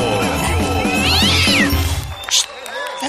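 A cat lets out a drawn-out, wavering meow that rises and falls, fairly loud over a steady low background hum, followed by a brief sharp noise near the end.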